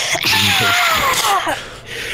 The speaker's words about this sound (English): I'm kind of trying to quietly, wordlessly shriek, but I can't not yell in battle, so going.